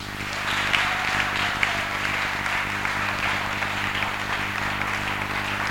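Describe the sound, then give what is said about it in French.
An audience claps steadily for several seconds to acclaim God, a dense, even roar of many hands with no single beat standing out, and no voices rising above it. “Je n'ai pas dit d'applaudir, j'ai dit acclamer Dieu.”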